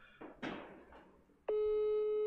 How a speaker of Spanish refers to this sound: Sin avisarle, estoy marcando a Pancho Céspedes hasta Cancún, Quintana Roo, donde Céspedes vive.